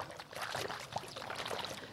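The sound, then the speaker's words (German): Water sloshing and gurgling inside a water-filled balloon that has just withstood a fire test, a steady wet churning that continues for a couple of seconds at moderate loudness, with no voices. “Da ist nämlich Wasser drin.”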